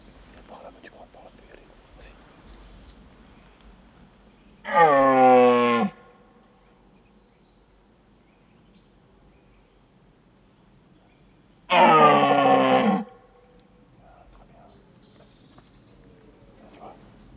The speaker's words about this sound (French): Alors, le brame du cerf, ça désigne à la fois deux choses. D'abord, la période de reproduction, qui s'appelle le brame, et également le cri du cerf émis pendant cette période de reproduction.